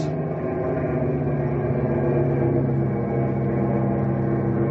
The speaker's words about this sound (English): Watch. I'll change the pitch of the prop blades. We'll crawl right over the treetops.